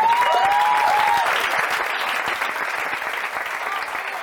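An audience claps steadily, a dense wash of applause that starts loud and gradually thins, with a few faint whoops or cheers rising over it early on.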